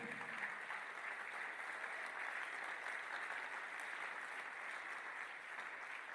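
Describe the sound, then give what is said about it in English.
Steady applause from an audience, many hands clapping continuously at an even level for several seconds with no voices over it. “You're clapping.”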